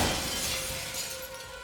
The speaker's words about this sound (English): This was already a trip then, the mirror exploded.